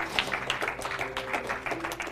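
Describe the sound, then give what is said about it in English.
A crowd claps steadily, dense overlapping hand claps forming a continuous patter at moderate volume, with no voices standing out. “If you're clapping in agreement, let me just warn you.”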